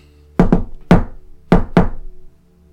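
A coded knock on a door: five sharp raps in a distinct pattern, two quick, one, then two more, with quiet before and after and no voices.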